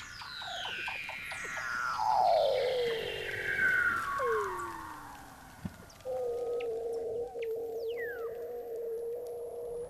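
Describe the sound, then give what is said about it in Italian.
Vocalizations of gray whales migrating between Alaska and Mexico, off the Santa Monica Mountains on the West Coast: several long, sweeping moans glide downward in pitch, followed by a steady, sustained tonal call. They are clear and fairly loud, with no talking. “Ogni anno queste acque sono attraversate da circa 20.000 balene grigie, che compiono un viaggio epico di 9.000 km dall'Alaska al Messico, per poi tornare indietro.”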